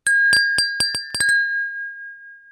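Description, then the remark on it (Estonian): Champagne glasses clink together in a toast in a quick series of about eight bright strikes, with a clear ringing tone lingering after the last clink and no voices. “nagu alguse kõllist äh, kuulda võis, see pidi tähistama pokaalide kokku, kokkukõlamist ja vot nii.”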